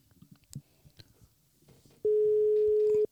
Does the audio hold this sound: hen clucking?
no